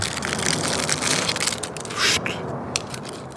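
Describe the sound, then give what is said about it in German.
Unwrapping a fortune cookie: a steady, dense crinkling and crackling of plastic wrapper for a few seconds, with a louder tearing rustle midway and a sharp crack near the end. “Und ganz zum Schluss, wie immer, der ein Glückskeks.”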